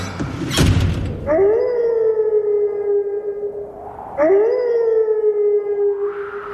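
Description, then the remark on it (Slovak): A wolf howls twice, opening the radio show Hodina vlka, each long, steady cry rising at the start and then holding a sustained pitch for a few seconds. A short noisy burst comes just before the first howl. “Začína sa totiž hodina vlka.”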